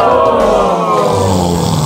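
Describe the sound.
A voice imitates a loud, rasping snore that swells into a growling roar, one continuous throaty rumble lasting about two seconds, forceful.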